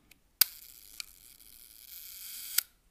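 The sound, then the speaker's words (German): A vintage mechanical camera shutter, released with the camera's back opened, fires with a sharp snap, then a sluggish whirring buzz drags on for about two seconds before closing with a second click, sounding sticky, gummed up and slow, alone. “Ist die Kamera hinten geöffnet, dann kann ich drücken und”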